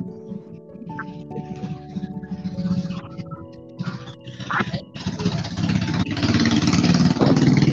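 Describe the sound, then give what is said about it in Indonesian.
A motorcycle engine idles with a steady harmonic hum, then revs up and grows louder and rougher toward the end, with faint voices in the background. “Hati-hati, jangan geber-geber bang, hati-hati.”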